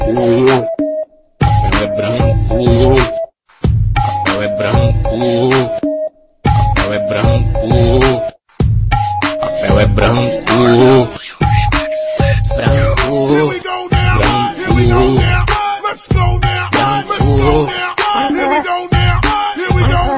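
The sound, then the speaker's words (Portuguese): A loud techno trance remix with bright, stacked synth tones chopped into stuttering bursts, broken by several brief silent gaps before building into a denser, continuous stretch; no one talks over it. “Nós vamos colocar uma música techno trance do …”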